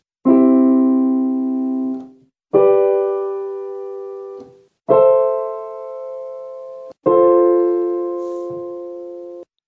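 A I-V-vi-IV chord progression in C major played as four sustained, bright, electronic-sounding chords, each held about two seconds with a quick attack and slight fade, no voices.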